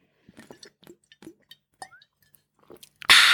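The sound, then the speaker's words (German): Someone handles a bottle of sparkling water: a scatter of small clicks, clinks and crunches, a brief rising squeak, then a sudden loud, steady fizzing hiss at the end. “muss was trinken kurz hier.”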